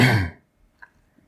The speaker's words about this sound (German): Äh, ich, tut mir leid, ich huste jetzt irgendwie mehr. Entschuldigung.